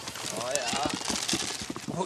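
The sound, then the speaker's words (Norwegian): A herd of goats clatters as it climbs up after the goat farmer bringing a bucket of concentrated feed, hooves knocking in quick irregular bursts on hard ground, with a wavering bleat rising over the trampling. “Kjeflokken de klatrer opp etter geitebonden når han kommer med desserten, ei bøtte med kraftfôr.”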